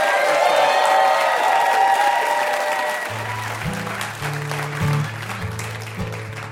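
A large crowd on the show Ask Me Another applauds loudly for VIP guest Nathan Sawaya, with cheers and whoops early on, and a thumping bass line of music fades in halfway through as the clapping continues.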